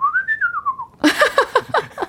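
A person whistles a sustained, gently wavering tone for about a second, then breaks into a quick series of short, breathy, swooping notes. It is fairly clear, with no one talking.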